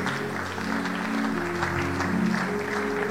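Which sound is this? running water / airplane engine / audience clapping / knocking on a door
audience clapping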